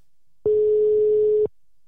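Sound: phone ringback tone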